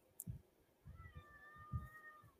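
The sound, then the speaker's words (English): A cat lets out one drawn-out, wavering meow, fairly quiet, with a few soft low thumps around it and no talking. “I hear you, Cat.”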